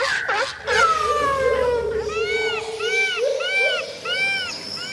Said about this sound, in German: Hallo und herzlich willkommen und es zirpt im Hintergrund. Und jetzt fragt ihr euch, wo zirpt's denn im Tierpark Hellerbrunn? Nein, im Tierpark Hellerbrunn bin ich erst später in der Folge.